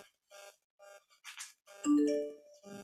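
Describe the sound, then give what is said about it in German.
A short electronic phone notification chime rings out clearly with a few bright tonal notes, surrounded by brief bursts of higher-pitched blips and clicks. “Das ist so ein typischer Handy-Sound.”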